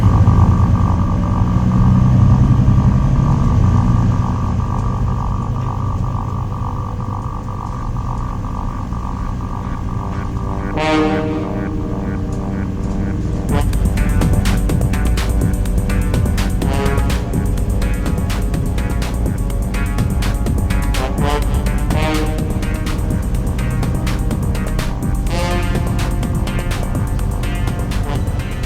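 A bus engine rumbles steadily and loudly as the bus drives fast along a path; midway the motor note rises and grows harsher and busier, with no voices heard.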